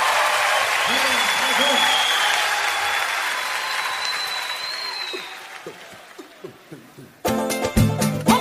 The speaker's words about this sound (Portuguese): Vamos aplaudir.